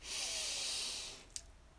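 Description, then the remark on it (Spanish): A long, deep inhale through the nose as part of a breathing exercise, a steady airy rush lasting about a second before tapering off, fairly quiet, followed by a small click and faint room noise. “Así que vamos a comenzar abriendo con un ciclo de respiración, inhalando profundamente por la nariz”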